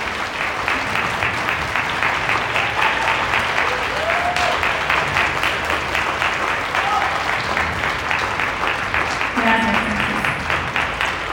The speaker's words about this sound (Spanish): Así que, por favor, dense un aplauso a ustedes mismos. Eso no cualquiera lo hace.